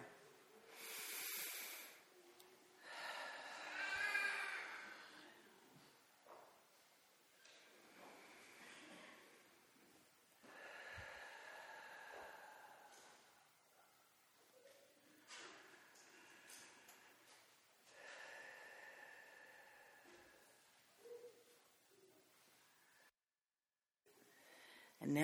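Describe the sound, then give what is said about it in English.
Several people exhale together five times, hands on their bellies, pushing the hand out with each breath: forceful, breathy pushes, each a broad airy whoosh with short pauses between, in a loose rhythm at moderate loudness, not as hard or loud as possible. “and you try to push your hand out with your breath a little bit.”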